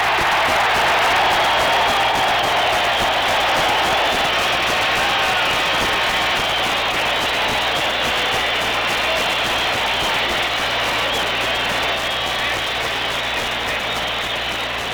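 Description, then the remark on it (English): A huge baseball stadium crowd at a night game roars and cheers without pause as Sandy Koufax pitches, a dense, loud wall of screaming voices that holds steady for the whole stretch with no single voice standing out. “This crowd is screaming to the skies.”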